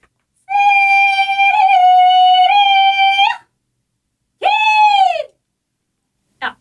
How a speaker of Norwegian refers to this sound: Wow! Ja, men det Hvordan får du opp en så lys, høy tone?